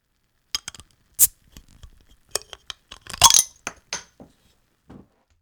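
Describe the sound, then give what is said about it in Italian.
A beer bottle, taken from a backpack, clinks and rattles, then a brief fizzy hiss as it opens, followed by a few light glassy taps and trickling pour sounds. No one speaks. “Scoppia a ridere forzatamente ed estrae dallo zaino una birra. Dai, biondo, beviamo alla salute di quei disgraziati.”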